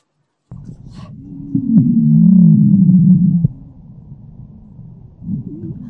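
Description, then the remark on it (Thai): A recorded lung wheeze, caused by air passing through a narrowed airway: a loud, low, musical whistling tone that slides slightly downward for about two seconds over a muffled, thumping rumble, with no talking. “เหมือนเสียงปลาวานอ่ะเออ อืม เนี่ยอันชัดเหมือนเสียงปลาวานร้อง อ่ะ อย่างนี้ฟังแล้วอธิบายได้ไหมครับว่า มันเกิดอะไรขึ้นบ้าง มันคือเสียงลมลมผ่านที่แคบ ครับมันคือลมเสียงลมผ่านที่แคบ”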